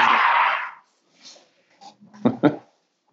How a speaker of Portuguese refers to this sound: Nossa, velho, desculpa. Tem uns cachorros tá